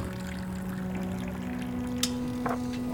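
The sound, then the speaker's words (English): Water is poured steadily into a glass over a low background hum, its pitch rising as it fills, with a couple of soft clinks near the end. No one speaks. “Would you like a glass of water?”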